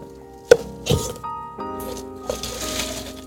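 Black tea with crushed ice added to it being briefly stirred, old-fashioned style: a sharp knock, then irregular bursts of gritty crunching and scraping, moderately loud, over a faint steady hum with no talking.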